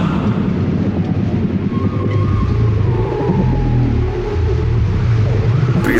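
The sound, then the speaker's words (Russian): A human voice imitates whale song to call a whale, with long, wavering, gliding moans that rise and fall, carried over a dense, steady low rumble throughout, with no ordinary talking. “А как его позвать нужно? Киты поют. Слышали как? И нам надо.”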